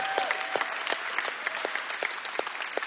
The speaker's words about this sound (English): Let's give him a shout of praise before we leave today.